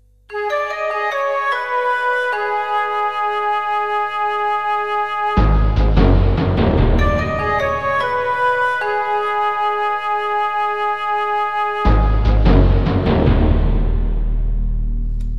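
A music track plays with bright, bell-like keyboard notes held over a steady pulse, then a fuller band with deep bass and drums kicks in twice, loud and continuous, with no talking.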